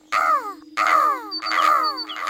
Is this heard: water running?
no